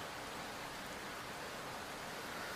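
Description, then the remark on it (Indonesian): Heavy rain pours in a steady, dense hiss that holds at an even level throughout, with no individual drops standing out and no voices. “tapi gue bersyukur udah nyampe duluan sebelum hujannya bener-bener deras tadi mungkin ketiga temen gue sedang kesulitan kali ya di jalan karena hujan ini.”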